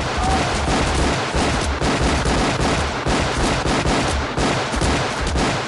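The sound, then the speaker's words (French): Rapid, continuous gunfire from a John Woo-style film scene in which Vandame, firing two guns after sliding under a table, puts 40 bullets into Arnold Oslo's body; loud and dense, shots blurring into a relentless rattling barrage for several seconds with no voices. “et qui tire 40 balles dans le corps d'Arnold Oslo.”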